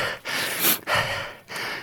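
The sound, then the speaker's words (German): Heavy, breathy panting from someone hiking behind up a steep gravel mountain path, three or four loud airy gasps in quick succession with sniffing snorts between them, like a person out of breath on a steep climb. “Sollen wir mal gucken, wer hier so hinterher schnieft.”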